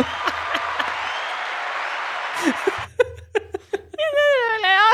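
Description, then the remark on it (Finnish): A canned applause sound effect, triggered by pressing a button, plays: dense, steady clapping for about three seconds, then cuts off abruptly as people laugh and start talking. “se on se aplodit ollut se oikea nappula.”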